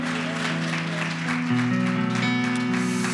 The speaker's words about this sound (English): In the name of Jesus, right now, in Jesus' name, somebody clap your hands to the Lord and give him praise one more time today.